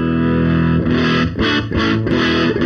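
Heavily saturated, fuzzy electric guitar driven through the internal preamp saturation of a Neve 88M, with a thick, buzzing distortion, playing a sustained chord and then a few choppy, rhythmic strums, loud and without any voices.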